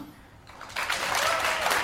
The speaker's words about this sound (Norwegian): Alle kan klappe som hørte den aller første episoden.